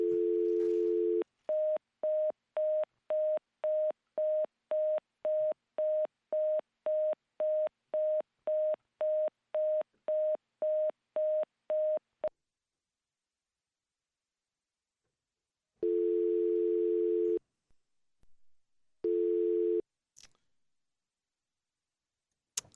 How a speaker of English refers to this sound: Okay. So we got a dial tone again there.